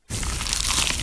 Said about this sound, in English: Is that the sound of an ooey gooey, cheesy, crunchy slice of PIZZA? Obviously.